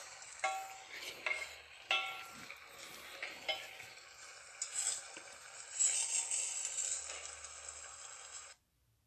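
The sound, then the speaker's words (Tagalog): Adobong balot broth simmers in a pot with a steady, bubbling hiss as it is boiled to reduce. A few light clinks and stirring sounds come early, then the hiss continues alone until it cuts off abruptly. “So, pakukulaan natin to hanggang mag-reduce na yung ating sabaw.”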